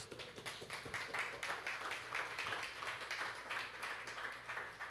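A church audience applauds the Lord Jesus steadily for the full few seconds, a dense, hissing wash of many overlapping claps that swells and dips slightly but never stops, with no voices heard.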